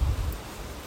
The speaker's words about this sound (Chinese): 很大声的声音是瀑布，在我们右手边外面是观雾瀑布。